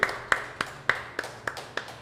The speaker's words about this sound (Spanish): Fuerte la aplauso.